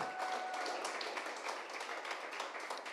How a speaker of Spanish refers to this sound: Dale un aplauso a Dios y dile, rompemos límites.